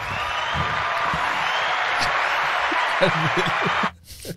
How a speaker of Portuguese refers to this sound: Do nada eu me aplaudo.